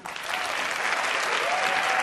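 audience applause

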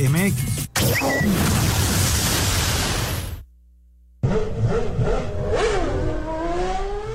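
racing car engines revving

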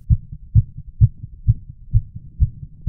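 fast heartbeat

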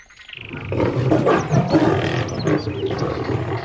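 lion roaring loudly

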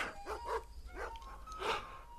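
dogs barking

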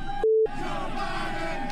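crowd chanting

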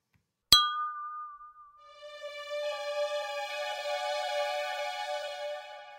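drinking glasses clinking

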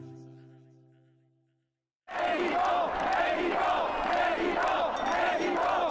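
protest crowd chanting

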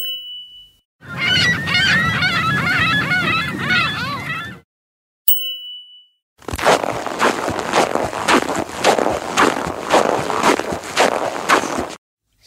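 seagull calls

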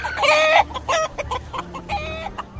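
hens clucking

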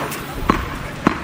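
tennis ball bouncing

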